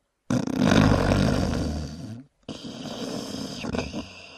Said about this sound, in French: Le loup ayant apaisé son appétit, s'allongea de nouveau dans le lit et commença à ronfler puissamment.